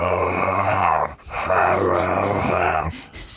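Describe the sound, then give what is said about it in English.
A voice imitates the slowed, guttural giggle of a pull-string doll with a busted speaker: two drawn-out, growling bursts with a brief break between them, loud. “The sound was slowed down to a terrifying guttural.”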